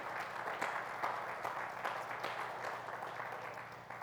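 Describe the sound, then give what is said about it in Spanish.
A church audience applauds together in thanks to the Lord, a dense, steady wash of many hands clapping at once that holds at a fairly even loudness for several seconds, with no talking over it. “Si usted lo cree, un aplauso de agradecimiento al Señor.”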